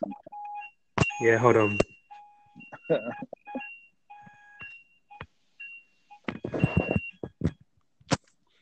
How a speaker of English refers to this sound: Or um, is that your weekly fire alarm test?